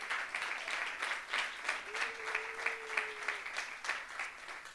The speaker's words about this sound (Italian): Un applauso.